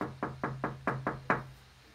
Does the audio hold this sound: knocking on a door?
yes